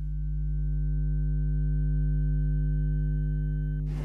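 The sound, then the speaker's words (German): A steady electronic hum from the electronics of a cash machine by the passage to an underground car park, picked up through headphones as a man withdraws money with a card and the machine retrieves bank data from its network; a deep low drone, layered harmonic tones and a thin high whine hold for about four seconds before a brief burst of noise. “Eine Frau mit Kopfhörern belauscht den Vorgang, die Elektronik des Automaten, der die Bankdaten des Nutzers aus seinem Netz abruft.”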